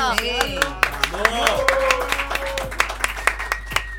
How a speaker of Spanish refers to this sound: Un aplauso por esto.